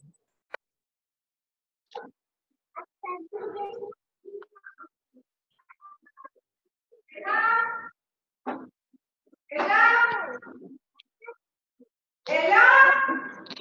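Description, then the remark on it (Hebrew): Children shout and wail, heard through participants' open phone microphones on a group call, in three loud, high-pitched bursts that grow stronger toward the end, with scattered faint voice fragments and clicks in the quieter stretches before them. “המיקרופון שלי פתוח, אבל הבעיה זה שאני שומע את כל הצעקות של כולם שם.”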